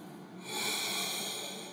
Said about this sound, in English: Let's breathe. Remind yourself of the value of breathing.